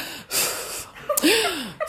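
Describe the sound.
A voice imitates a friend's exasperated huff during a lecture: a sharp breathy exhale followed by a sighing, falling vocal groan, fairly loud, with another quick breath at the end.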